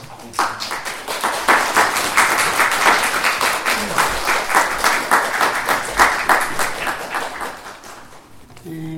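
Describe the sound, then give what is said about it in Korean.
A church audience bursts into steady applause to welcome a speaker coming forward, many hands clapping together in a dense, sustained patter for several seconds before it fades out near the end. “우리 좀 나오실 때좀 격려하는 의미로 좀 박수 좀 환영할까요?”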